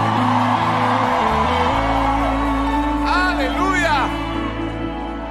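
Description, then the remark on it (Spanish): A large crowd at a religious service erupts in loud, sustained shouting and cheering in response to a preacher asking believers to shout, with several high, rising whoops cutting through near the end over a steady low musical drone. “Só se você acredita, dá um grito.”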